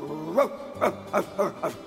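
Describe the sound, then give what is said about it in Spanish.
A dog barks angrily in a quick run of about five sharp, harmonic barks, fairly loud, with no one talking. “Pero a diferencia del primero, entró con miedo y les ladró con furia.”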